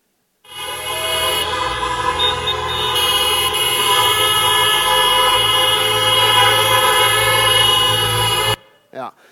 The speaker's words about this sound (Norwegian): Hvis du, at, hvis du, er mer vant til høykirkelighet og tenker at sånne kirker som dette det er litt slitsomt med mye amen og sånne eh, responser i salen, bare hør på dette her, hvordan det ble når, når folk fikk lov å tute for å si amen.